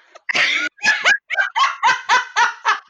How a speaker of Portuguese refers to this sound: bota, bota este caralho desse, cachorro, desse cachorro pra fora.